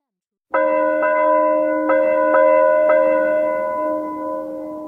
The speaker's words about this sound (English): In the middle of the night, the church bells suddenly began ringing.